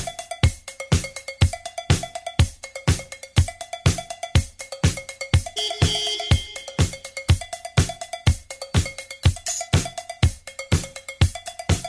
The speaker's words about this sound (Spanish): género electro-funk, este clásico de 1979 llega a los primeros lugares en el Billboard Hot 100 em, y número 1 en Alemania, Austria y Suiza.